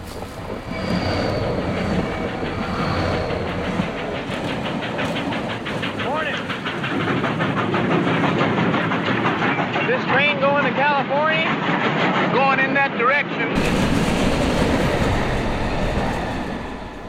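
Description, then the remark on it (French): A fast freight train roars past much too fast, loud and steady, with rapid clattering wheels and high metallic squeals rising over the rumble before the sound abruptly shifts near the end. “les trains passaient ici au ralenti. En fait, en fait, ils passent beaucoup trop vite.”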